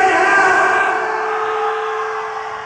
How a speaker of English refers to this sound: Now, now, in the middle of the song, we ask the audience to scream as if you're in hell. This is your sound check. Please, ladies and gentlemen, don't be shy. Scream as if you're in hell!